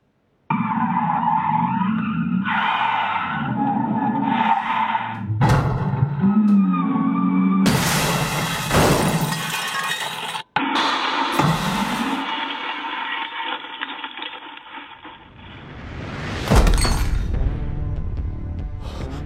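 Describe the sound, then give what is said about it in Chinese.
A car crashes into a convenience store: a long, wailing tire screech, then loud smashing impacts with shattering glass, and a final sharp crash near the end. No one speaks. “就在阿潘焦头烂额的时候，有观众看到了一个便利店事故的视频，发到了直播间。”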